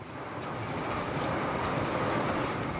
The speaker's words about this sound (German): Noch ist die Sonne nicht ganz aufgegangen, aber auch in der Morgendämmerung sieht und hört man die wilde Brandung des Atlantiks.